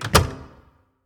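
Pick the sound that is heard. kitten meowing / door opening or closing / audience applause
door opening or closing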